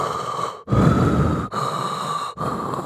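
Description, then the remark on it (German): A voice imitates a sleeper's breathing: loud, airy inhales and exhales in a slow cycle, about three breaths separated by brief pauses, with no speech. “Ähm, das war so, dieser, dieser Atemhauch, jemand schläft war exakt so laut wie die Explosion.”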